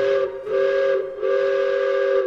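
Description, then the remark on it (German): A loud steam train whistle of the Panoramabahn park train at Europa-Park sounds three times in quick succession as it departs the station, two short blasts followed by a longer sustained one, with a steady, bright tone and no talking. “Danach geht's zum Bahnhof der Panoramabahn. Mit der kommen wir nämlich ganz entspannt zu den anderen Themenbereichen des Europapark. Und Abfahrt!”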